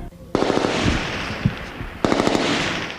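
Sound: gunfire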